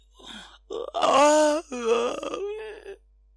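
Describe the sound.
A human voice imitates a dog's wide yawn: a short breathy catch, then a long, loud groaning yawn with sliding pitch that breaks once and trails off, alone.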